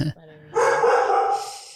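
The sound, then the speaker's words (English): A dog gives a sharp, noisy bark that stretches out for about a second, preceded by a brief murmur of a voice in the background. “and there's a dog in the back.”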